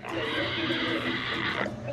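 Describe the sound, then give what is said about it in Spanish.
A person's voice imitates a pig's squeal in one loud, strained, continuous cry held for about two seconds. “¡Haz como puerco! ¡Haz como puerco!”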